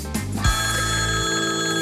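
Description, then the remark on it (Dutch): A parliamentary division bell in the Tweede Kamer (Dutch House of Representatives) in The Hague rings continuously, a loud, steady electric ringing that starts abruptly and holds an unbroken metallic tone until the end, with no voices over it. “Waarom gaat er een bel af in de Tweede Kamer?”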